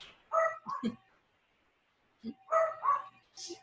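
A dog named Chico barks in two short bursts of several sharp barks each, separated by a brief pause, moderately loud.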